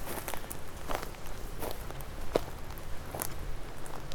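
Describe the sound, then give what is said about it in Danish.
Footsteps swish and rustle through tall wet grass on a large meadow at a steady walking pace, with soft brushing crunches over a low outdoor background. “Så skal vi lige nogle meter den her vej igennem det her lidt høje våde græs.”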